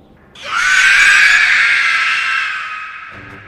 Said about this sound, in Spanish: A duras penas lo había entendido, cuando se oyó mucho más arriba un chillido encolerizado.